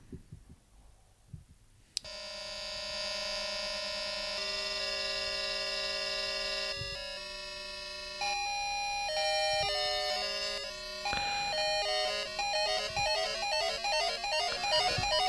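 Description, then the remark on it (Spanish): A device that lights up plays electronic tones generated by an endless algorithm that varies the tempo: bright, buzzy synthesized notes that hold and shift in pitch, then break into a faster, busier stream of chirping beeps near the end. No one speaks. “En el cual se encienden unas luces y entonces eh, genera unos sonidos de un algoritmo como infinito, entonces va variando el tiempo el tempo de, los sonidos.”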